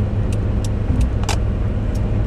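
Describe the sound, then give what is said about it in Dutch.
Steady road traffic rumbles, a continuous low engine drone with faint hissy ticks and clinks riding on top, no voices present. “Oh, verkeer.”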